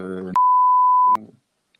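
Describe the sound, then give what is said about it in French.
A loud, steady censor bleep added in editing, lasting under a second, abruptly cuts into a man's voice, with sharp clicks at each edge as the speech is chopped off before and briefly resumes after. “je vais rajouter à chaque fois euh, un bip euh, au montage. Donc là, il y aura des bips.”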